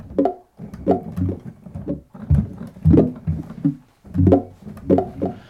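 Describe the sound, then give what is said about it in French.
A short thudding sample of an apple falling, played as notes on a master keyboard, about ten dull pitched hits in an uneven melodic run at varying pitches, fairly loud, with no voices. “ce bruit-là dont on vient de parler, donc le bruit de la pomme qui tombe. J'en ai fait un instrument de musique.”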